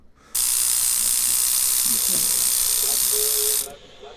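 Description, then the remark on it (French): A tattoo machine needle buzzes loudly and steadily for about three seconds while tattooing a person's skin: a high, hissing electric whine that switches on abruptly and cuts off just as suddenly. “Ah, je sens une aiguille me déchiqueter la chair, mais je kiffe ça Il y a un côté.”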